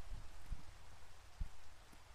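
Steady rain falls with a soft, continuous hiss, punctuated by a few low thumps of drops hitting a surface. No voices are present.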